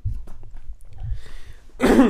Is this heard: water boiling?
no